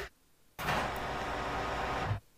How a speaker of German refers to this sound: Wow, was ist denn mit diesem Drucker los? Ich glaube, mein Drucker explodiert.